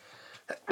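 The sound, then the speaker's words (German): A single sharp sneeze, preceded by a quick intake of breath and bursting out loud at the end, with no talking around it. “Gesundheit.”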